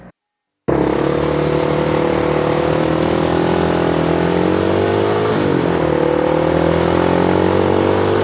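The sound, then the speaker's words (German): Motor scooters rev loudly and continuously in busy street traffic in Taiwan, engine pitches rising and shifting as they accelerate, with no talking. “Taiwan ist ein Motorrollerland.”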